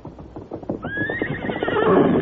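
Hooves clip-clop in a quick, steady rhythm, then the horse Silver lets out a loud, high whinny that rises and wavers on for over a second while the hoofbeats continue underneath.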